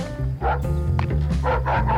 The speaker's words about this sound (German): Da hörte er draußen den Hund kläffen.